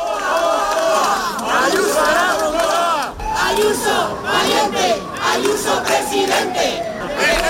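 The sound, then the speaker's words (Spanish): A protest crowd of about 200 supporters of Isabel Díaz Ayuso, gathered at nightfall outside the PP national headquarters on Calle Génova in Madrid, shouts slogans in unison, many voices overlapping in loud, rhythmic chants that rise and fall, with a brief dip before the chanting surges again. “Esos serán algunos de los gritos que lanzaban.”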